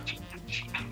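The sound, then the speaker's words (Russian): A domestic cat scratching and digging, trying to bury something: quick, rhythmic rasping strokes, about four in a second, fairly loud with no talking. “Нет, он тут пытается что-то зарыть.”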